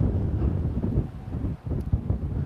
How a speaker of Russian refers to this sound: Ветер задувает, не дает мне говорить.